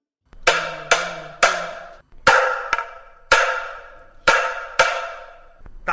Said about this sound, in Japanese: 実はこれは夜回りして時を知らせる道具と同じものを叩いた音なんです あそうなんですか でも目的は時を知らせるのではなくてごま油を売る専用の音なんですよ